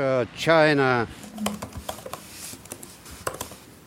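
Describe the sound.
A voice speaks briefly, then a run of close, crisp laptop clicks and key taps follows at an irregular pace, each one short and sharp against a quiet background.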